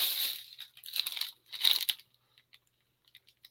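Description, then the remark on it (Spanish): A snack bag is torn open right in front of a microphone, with loud crinkling and rustling bursts in the first two seconds, followed by a few faint, scattered crackles as the plastic settles. No one speaks. “Era, el abrir de la bolsa que hiciste justo Oye, encima enfrente del micrófono, güey.”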